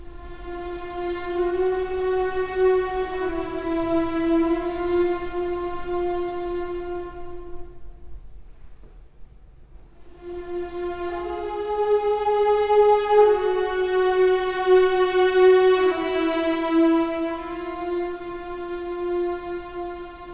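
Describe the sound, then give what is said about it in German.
Sustained orchestral tones play a slow four-note chromatic motif at the opening of a requiem, each note a semitone apart. The phrase sounds twice, separated by a brief near-silent pause, full and steady with no voices. “Gleich am Anfang vier Töne, jeweils einen Halbton versetzt.”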